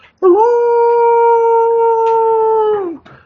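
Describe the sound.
A person imitates a wolf howl: one long, loud, steady note held for about three seconds, then dropping off at the end, with no talking.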